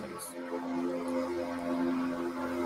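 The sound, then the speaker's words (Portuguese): A mosquito fogging machine drones steadily as it passes outside a house, its motor giving a continuous, buzzing hum at a fairly even moderate loudness throughout, with no one speaking. “Mas tá passando, passando fumacê na minha casa.”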